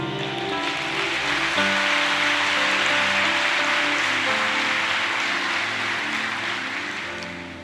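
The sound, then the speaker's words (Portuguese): An audience at a church service applauds the Lord steadily for several seconds, a dense, sustained wash of clapping over soft held keyboard chords, fading slightly toward the end. “Aplauda o Senhor.”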